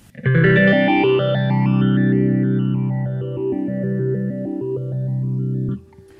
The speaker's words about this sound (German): Right, so it's a multi-step phaser. I'm not even sure how many steps it is. 16, 20, I mean, it's quite a few. Because when you crank it up, get it going faster, you can kind of hear the pattern a little better. Very cool.